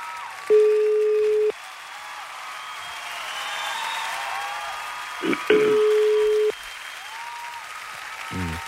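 A phone's ringback tone sounds twice, each steady one-second beep followed by a long pause, clear and loud over a continuous hiss of background crowd-like noise.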